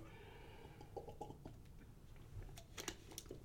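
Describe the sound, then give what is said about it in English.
Someone sips water, with quiet wet mouth clicks and a few soft swallowing sounds over a steady low background hum, and no talking. “excuse me, that's some water”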